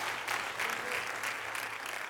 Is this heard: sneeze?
no